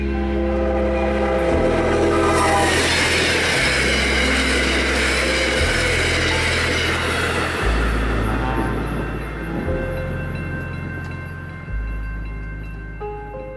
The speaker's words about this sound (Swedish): Men även etablerade skönlitterära författare som Mark Twain fångades av ånglokomotivets kraft, fart, rök och oljud.